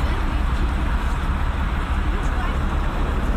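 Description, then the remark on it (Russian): A bus rumbles past on the road, its loud, steady low-pitched engine roar and road noise filling the whole moment without letting up. “Вот проехал мимо нас автобус.”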